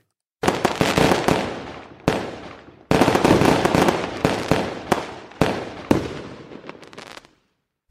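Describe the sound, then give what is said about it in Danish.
New Year's Eve fireworks explode in a rapid, continuous barrage of loud cracks and booms, with several sharp bursts punctuating the roar before it cuts off abruptly near the end. “Klokken er godt og vel øh, kvart over syv her nytårsaftens øh, morgen, og øh, efter øh, nogle timer i dag, der kommer det nok til at lyde sådan her.”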